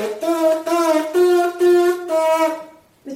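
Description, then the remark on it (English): Lips buzz a short tune, as in the embouchure for brass instruments, in several sustained, reedy pitches in a steady melodic line. The buzzing is fairly loud and ends with a brief pause and one more buzz. “once you can do that, you can buzz tunes like this.”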